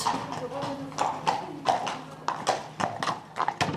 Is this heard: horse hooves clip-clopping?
yes